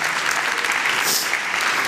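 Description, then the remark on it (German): An audience claps steadily in applause for the Holy Spirit, a dense, even wash of many hands that holds at a constant loud level for the whole two seconds, with no voices standing out. “Und äh, lasst uns dem Heiligen Geist mal einen Applaus geben.”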